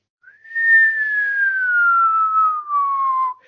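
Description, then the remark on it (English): A single long, steady whistle that starts high and slowly glides downward in pitch for about three seconds, mimicking the sound of a falling bomb. Clear, with no talking over it. “we used to try and make it sound like a bomb coming down.”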